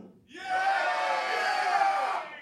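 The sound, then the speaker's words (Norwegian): An audience bursts into a loud, sustained cheer of mixed shouts and whoops, voting on whether a title is a real game, rising quickly and holding steady for about two seconds before fading out. “Alle som tror dette ikke er et spill, jubler nå.”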